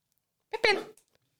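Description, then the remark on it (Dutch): A dog gives a single short, sharp bark, a brief harmonic yelp that stands alone in an otherwise quiet moment. “Oké, na ehm, abrupt onderbroken te zijn geworden door een hond, gaan we weer door.”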